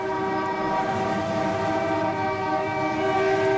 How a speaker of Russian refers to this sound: Еще раз, три раза сигналим, где бы вы ни находились, сигналим, если слышим эту программу